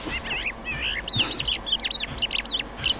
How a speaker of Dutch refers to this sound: Dus het eerste dat mij opkwam toen ik die leeuwerik bezig hoorde.